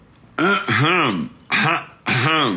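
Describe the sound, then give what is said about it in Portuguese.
Fairly loud, light throat clearing in three voiced bursts, the first two running almost together, then a short pause before the last one. No other sounds around it. “Eu começo o 0800, me dá um leve pigarrinho agora.”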